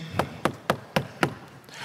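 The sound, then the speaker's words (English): Five quick, evenly spaced, sharp knocks on a door, rapping in a steady rhythm with no voices around them. “babe, somebody's knocking on the door.”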